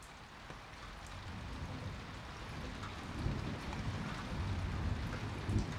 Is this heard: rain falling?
yes